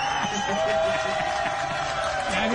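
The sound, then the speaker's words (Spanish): A crowd breaks into spontaneous applause after a jingle is sung, dense clapping mixed with cheers and murmuring voices, loud and sustained throughout without a clear break. “por esos aplausos espontáneos.”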